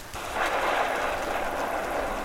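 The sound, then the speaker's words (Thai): Heavy, continuous rain pours down in a steady, unbroken hiss, loud, with a dense wash of drops filling the whole stretch and no voices. “ฝนตกหนักและตกต่อเนื่องเนิ่นนาน ไม่มีท่าทีว่าฝนจะหยุด”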